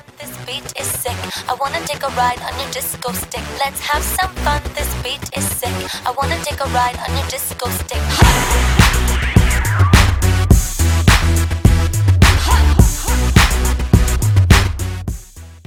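A loud music stinger plays as a censoring cover over a remark, with busy percussive hits throughout and a heavy bass line kicking in halfway, filling the whole stretch with no clear speech.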